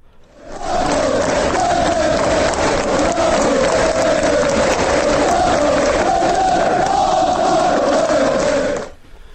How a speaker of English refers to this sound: We used to do these little interludes, didn't we, with the crowd noise? It, it breaks the show up, doesn't it?